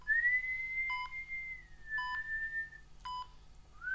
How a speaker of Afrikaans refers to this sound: Maar deur die spierwit gange loop 'n man en fluit.